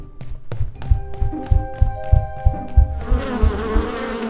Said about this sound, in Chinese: 咦，蜜蜂要飞走了！啊，他们怎么不回家呢？